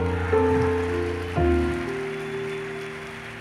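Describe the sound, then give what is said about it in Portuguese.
A church audience applauds for the Lord in a steady, dense patter of clapping, with sustained keyboard chords ringing underneath that shift to a new chord partway through. “Se você crê nisso, dê um brado ao Senhor e aplaudo aqui, adoro.”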